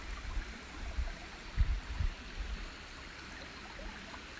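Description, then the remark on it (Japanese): A small stream flows steadily on a very sunny day with a soft, continuous babble, fairly quiet, with a few low rumbling bumps around the middle and no voices. “今日はとっても天気が良いので小川の隣でゴローンと日向ぼっこをしています”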